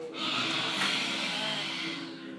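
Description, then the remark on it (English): A single forceful, breathy exhale lasting about two seconds, with a slight voiced growl in it: a person with mouth open imitating a lion's roar, fairly loud, with no talking. “Should we try it again and roar as loud as we can?”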